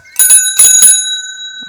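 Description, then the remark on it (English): A loud hand bell clangs three times in quick succession, its bright metallic tone lingering and slowly fading after the last strike. No one speaks. “are hating on my bell like Paletas!”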